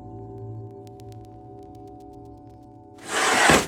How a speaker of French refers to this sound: Là, vous entendez un bruit de tiroir.